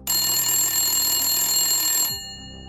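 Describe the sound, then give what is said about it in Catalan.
An old-fashioned telephone bell rings in a café in one continuous, loud metallic trill for about two seconds, then cuts off abruptly, leaving a faint ringing decay. “Va sonar un telèfon.”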